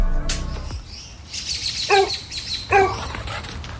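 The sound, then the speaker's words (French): A dog that has got out of the yard barks twice, sharp, about a second apart, over an outdoor background with birds chirping faintly. “Le chien est encore sorti de la cour!”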